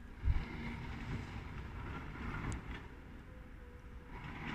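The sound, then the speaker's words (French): A heavy tree-felling machine cutting down trees drones steadily, its engine a low continuous rumble, with a brief deep thud near the start; trees are heard falling. No one speaks. “On entend tomber les arbres ici. C'est une machine qui les coupe.”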